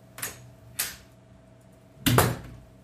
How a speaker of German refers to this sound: Nach endlosen Minuten, in denen sie versucht hatte, den verstohlenen Blick von Herrn Keil auszuweichen, öffnete sich endlich die Tür und der Wachmann erschien.